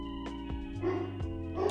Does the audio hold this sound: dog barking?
yes